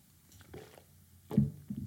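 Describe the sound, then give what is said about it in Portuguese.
Someone sips water: a couple of soft, wet mouth sounds, then a fuller gulp near the end, all low and muffled against near silence, with no talking. “Deixa-me só dar aqui um bolito de água.”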